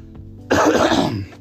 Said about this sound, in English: Excuse me about the cough.